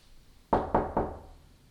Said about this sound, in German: während sie an die Tür ihres großen Bruders klopft.